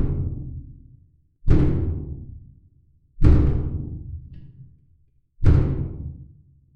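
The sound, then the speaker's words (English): Heavy, booming knocks on a door, about four slow blows spaced over several seconds, each one loud and ringing out with a long, echoing decay before the next. “Someone's at the door.”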